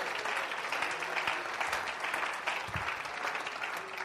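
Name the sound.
audience clapping hands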